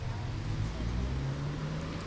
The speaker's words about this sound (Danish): Nu kommer bussen. Og den er for tidligt på den.